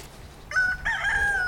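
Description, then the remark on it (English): A bantam rooster crows once, a short bright opening note followed by a longer, sustained high-pitched call that holds steady before ending, loud and clear over a faint low background hum. “One is smaller, so probably a bantam.”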